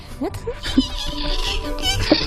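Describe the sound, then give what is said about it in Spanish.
A person imitates the hiss of their pet turtles with their voice: breathy, hissing bursts mixed with a few short squeaky vocal glides, fairly loud, lasting a couple of seconds. “Pues, pues las mías son muy calladas. Las mías bufan, hacen...”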